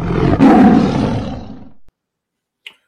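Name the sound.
tiger roar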